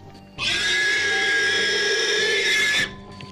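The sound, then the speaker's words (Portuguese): A pig squeals in one long, loud, shrill burst lasting a couple of seconds, played back on its own over a faint background hum. “o Sonic nunca ouviu o som do porco também”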